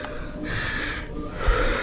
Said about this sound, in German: Inzwischen tropft dem 50-Jährigen der Schweiß von der Stirn. Sehr gut. Er atmet schwer, aber er strampelt weiter.